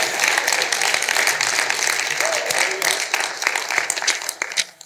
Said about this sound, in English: Come on, give a big hand clap and shout out. Thank you, Lord.